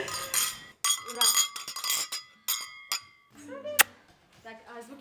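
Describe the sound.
Several bright glass clinks ring out close together in a New Year toast, their tones lingering briefly, followed by a final sharp clink as people begin talking and laughing.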